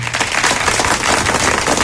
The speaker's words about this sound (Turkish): Ayten Gurday'a alkışlar.